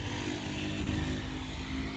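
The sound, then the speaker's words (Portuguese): A motorcycle engine drones loudly and steadily for the whole moment, a continuous low rumble with a buzzy edge and no clear rise or fade as it goes by outside. “Valeu, moto?”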